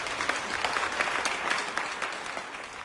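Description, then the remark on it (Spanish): A crowd claps steadily and continuously to welcome the empanada, the northern classic, a dense wash of many hands applauding at moderate loudness with no voices standing out. “Y por último, por favor, recíbanla con aplausos, el superclásico norteño, la empanada, la señora empanada. ¡Fuerte el aplauso!”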